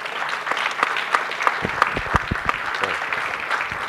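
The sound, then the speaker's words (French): Steady audience applause following a reading of dialogues at an evening event, a dense wash of many hands clapping with a few sharper individual claps popping out at a loose, uneven rhythm, sustained at a moderate level throughout. “Oui, on peut applaudir, on peut applaudir.”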